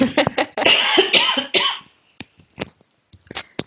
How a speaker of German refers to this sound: jetzt muss ich einmal husten, es tut mir sehr leid.